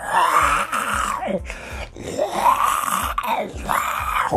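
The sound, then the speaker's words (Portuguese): A voice imitates a zombie, letting out several drawn-out, rising and falling guttural groans in a steady rhythm, loud and raspy, with no other talking. “as crianças surgiam igual que igual zumbi, tá ligado? Igual aquele zumbi na carne fresca, assim.”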